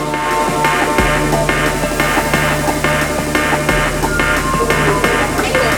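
A loud jump-up drum and bass track plays on its own: fast, busy breakbeat drums over a heavy, sustained sub-bass line that shifts pitch every few seconds, with no voices.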